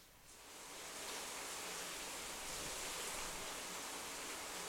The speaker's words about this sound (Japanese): 雨はますます強くなっています雨季真っ只中のインドネシアからお送りしました